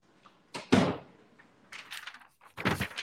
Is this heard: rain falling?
no